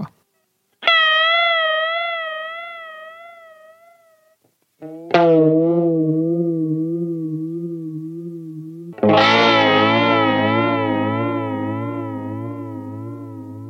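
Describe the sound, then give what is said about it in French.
Electric guitar run through a Jet Flanger pedal, based on an ADA-brand flanger that feeds part of the signal back into the main circuit: three sustained notes or chords each ringing and slowly decaying, with a sweeping, whooshing jet-like modulation wavering through the tone. No voices. “D'abord le flinger classique, le Jet Flanger qui est basé sur un flanger de la marque ADA qui permet de réinjecter une partie du signal dans le circuit principal pour avoir euh, plein d'effets euh, planants.”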